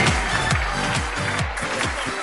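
A crowd applauds a businesswoman from Cali in a steady, dense wash of clapping that holds at an even level throughout, with a regular low thumping beat pulsing underneath about twice a second.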